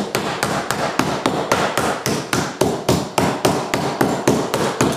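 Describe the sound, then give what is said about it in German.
A meat tenderizer pounds butcher's meat in a steady, fast series of solid thuds, roughly three or four blows per second, with no talking. “Das tue ich jetzt klopfen.”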